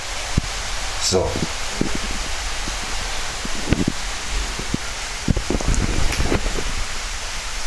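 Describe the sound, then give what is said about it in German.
Steady outdoor rain hisses as a broad, even wash, with scattered rustles and soft taps on a surface; a voice briefly speaks once. “Es regnet.”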